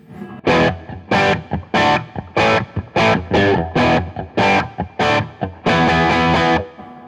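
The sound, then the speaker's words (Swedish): Distorted electric guitar with the fat switch turned off plays a rhythmic run of loud, crunchy chord stabs, about ten short hits with brief gaps, ending on a longer sustained chord. No one talks over it. “om du slår av fat switchen, hur låter det då?”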